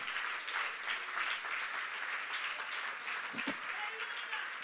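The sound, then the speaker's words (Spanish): Sustained audience applause, a dense steady wash of many hands clapping at an even loudness throughout, with a brief murmur of voices partway through. “Si le va a dar el aplauso.”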